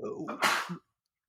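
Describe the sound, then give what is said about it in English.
A single sharp sneeze bursts out, preceded by a brief voiced murmur and followed by quiet. “Gesundheit.”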